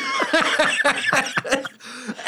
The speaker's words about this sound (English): I killed him. He's choking. He's turning red.